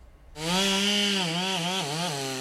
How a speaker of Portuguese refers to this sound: A motosserra corta a árvore de grande porte que caiu no quilômetro 12 da rodovia Anchieta, sentido litoral, obstruindo todas as pistas e causando quilômetros de congestionamento.